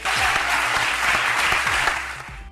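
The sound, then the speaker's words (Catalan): Sustained applause from a large crowd as Vicent Montpó of the People's Party is proclaimed president of the provincial Diputació, dense and steady clapping at a fairly loud level throughout, with faint voices mixed underneath. “Aplaudiments que han caigut com un gon d'aigua freda en les files socialistes i de compromís.”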